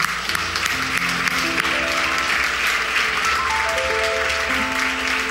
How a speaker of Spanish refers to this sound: Vamos, a darle un aplauso a Jesucristo.